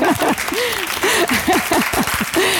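A live audience at a book event claps steadily while many voices shout and call out together in rising, overlapping cries, loudly calling the author Susa Kolb onto the stage to celebrate the 20th Haferhorde book, with dense applause.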